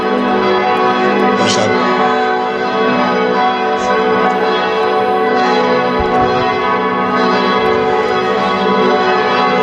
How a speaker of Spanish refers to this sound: Bueno, estamos paseando por el centro de Salzburgo y claro, no es raro que en el momento del día en el que nos encontremos las campanas redoblen y tengamos que prepararnos para escucharlas.